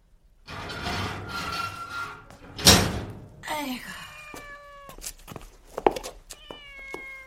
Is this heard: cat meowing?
yes